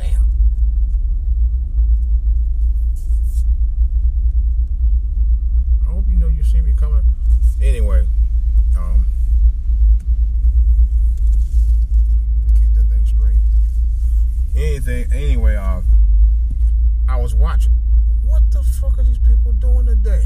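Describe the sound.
Steady, deep rumble of a car interior while driving in heavy traffic on a Friday, continuous and fairly loud throughout, with a person talking intermittently over the low road and engine drone.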